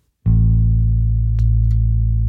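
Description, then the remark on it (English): A single low instrument note is played and rings out steadily, rich in harmonics; partway through, a faint click marks a compressor being turned on and the sustained tone grows slightly louder and fuller. “I'm going to play the note and then you turn it on.”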